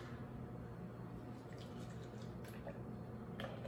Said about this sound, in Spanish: Le pongo un poco de endulzante, un chorrito de leche.